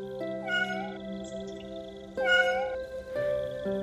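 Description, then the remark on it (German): A small cat meows pitifully three times in a row from behind a bush, drawn-out plaintive cries with short pauses between, clear over a steady low background hum. “kurze Zeit später beantwortet sich diese Frage, als ihr ein klägliches Mauzen hört.”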